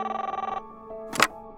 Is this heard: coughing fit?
no